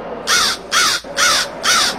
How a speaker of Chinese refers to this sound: 乌鸦大声叫道。没人搭理他，四周像死一般寂静。乌鸦有些害怕，又大叫起来